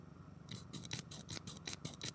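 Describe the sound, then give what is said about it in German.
A lens cap's spring clips are snapped in and out with two fingers, a quick, steady run of about eight small plastic clicks, fairly quiet, with no talking. “es war ein Objektivdeckel, den man so, wo, wo man so, weißt du, mit zwei Fingern so den Auf und, also die, diese Schnapper rein genau.”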